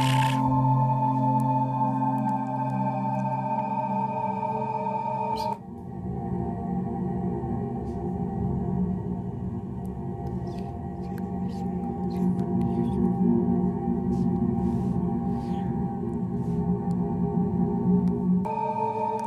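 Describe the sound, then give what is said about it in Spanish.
Jupiter's radio emissions rendered as sound: a steady, eerie wash of droning tones and hiss with scattered crackling bursts, shifting abruptly partway through and continuing loud and unbroken, with no voices. “Este es el sonido de Júpiter.”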